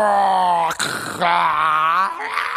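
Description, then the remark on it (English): A voice imitating a Godzilla monster roar, the way a three-year-old plays Godzilla to destroy the building game: a loud, drawn-out growling bellow with a raspy break partway through, then it resumes and rises slightly in pitch at the end. “And eventually, my three year old will just decide it's time to be Godzilla.”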